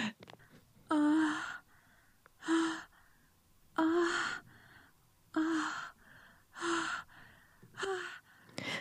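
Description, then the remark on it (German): A series of six breathy, voiced sexual moans and gasps, evenly spaced about every one and a half seconds, fairly loud, with quiet pauses between them and no speech. “Das hört sich für mich, finde ich, genau an nach äh, Oralsex.”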